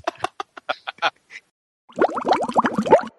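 A recorded burp, a long, rough, croaking belch lasting over a second with a wobbling pitch, preceded by a quick series of short choppy bursts.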